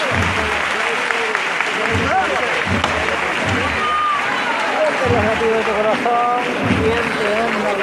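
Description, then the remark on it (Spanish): A crowd applauds steadily as a procession float (paso) stops beside them, a dense, continuous clatter of many hands clapping that stays loud throughout, with scattered voices and cheers mixed into the din. “los aplausos cuando se para, cuando se, se para el paso a, tu lado después de tanto tiempo de espera, es que uno se, manifiesta así, aplaudiendo.”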